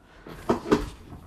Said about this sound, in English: Sorry, that was my chair.